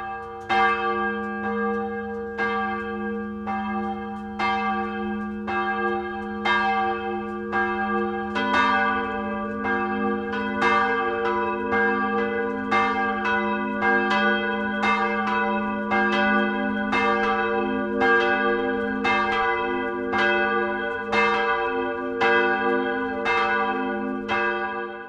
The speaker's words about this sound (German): Es ist 12 Uhr. Das Mittagsläuten kommt heute aus Puchschlagen in Oberbayern.